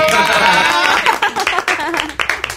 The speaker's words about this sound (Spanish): Un aplauso para... ¡Se emociona!